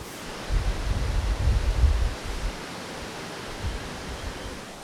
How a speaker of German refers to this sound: Jetzt bin ich kurz vor Illertissen und verlasse gleich die Iller wieder. Jetzt habe ich noch ein Bänkle entdeckt mit einer Stromschnelle vorne dran. Das wird man wahrscheinlich wieder hören.